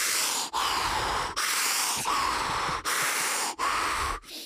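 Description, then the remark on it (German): Loud, forceful Wim Hof-style deep breaths drawn in and pushed out in a steady rhythm, about six rushing cycles with brief pauses between, airy with no talking. “Ich merke, das donnert schon bei drei Atemzügen rein.”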